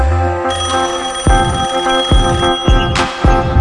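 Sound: telephone ringing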